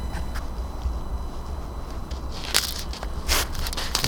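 Crunchy cracking and crushing like breaking ice, with scattered small crackles building to a few sharper, louder snaps near the end over a low rumbling background.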